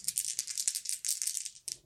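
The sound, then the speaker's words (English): A rapid, continuous clatter of dice tumbling and rattling for nearly two seconds, bright and busy, ending with a brief final knock: an action die and two challenge dice rolled for a wits roll in a tabletop game. “All right, I've got a seven on the action die. I've got a seven and a 10 on the challenge dice, which is going to be a miss.”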